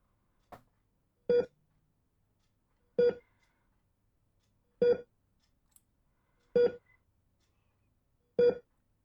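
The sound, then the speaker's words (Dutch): A TV test card tone sounds as five short, buzzy mid-pitched beeps at a steady, unhurried interval, each the same length and loudness, with silence between and no talking. “Ik heb nog zo vaak gezegd: je moet het testbeeld van je tv niet s'nachts aan laten staan.”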